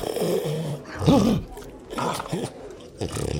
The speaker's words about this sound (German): Er, er bellt dich an und knurrt dich an und geht langsam hinter dich.